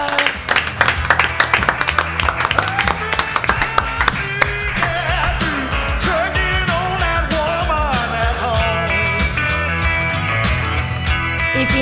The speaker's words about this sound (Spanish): Un aplaudiment, collons!